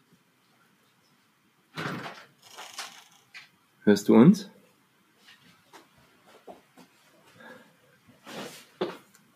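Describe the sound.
A door is shut nearby with a couple of clunking, sliding bumps and a firm thud, while a voice asks a short question and background movement continues.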